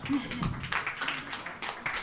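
An audience applauds to welcome a musician guest, a brief burst of dense, steady clapping that holds at a moderate level for about two seconds, with a faint voice briefly audible at the start.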